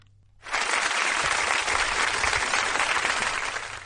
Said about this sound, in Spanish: Un aplauso para los dos, los dos ganadores del Premio Nobel de Física, un premio cantado este año.